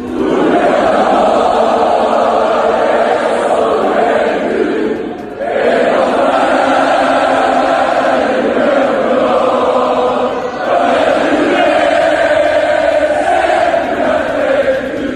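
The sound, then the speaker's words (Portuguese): Thousands of fans cheer in the João Rocha pavilion as they await the team, a loud, dense, unbroken roar of massed voices that dips briefly twice before swelling back to full strength. “Milhares e milhares de adeptos esperavam a equipa.”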